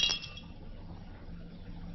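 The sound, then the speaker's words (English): A man drops a drinking glass, which hits the floor and breaks with one sharp, bright crack at the very start, followed by a quiet, low room hum with no voices. “Does it break because it is faulty or because it is glass?”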